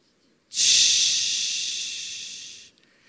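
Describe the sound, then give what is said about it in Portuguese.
A person imitates a pressure cooker releasing steam when its little valve pin is pressed: one long, loud, breathy hiss lasting about two seconds, bright and airy, tapering slightly before stopping abruptly. No talking. “Quem já teve uma panela de pressão e quando você aperta o pininho assim, o que ela faz?”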